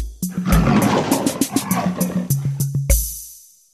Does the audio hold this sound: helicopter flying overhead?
no